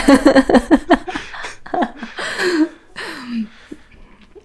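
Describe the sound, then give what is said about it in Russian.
A breathy attempt at a yawn made while inhaling, with several short gasping, voiced intakes and sliding vocal tones, broken by a few bursts of giggling. “Я как ребенок, который пытается задуть свечи, вдыхая их. Да. А как зевать так?”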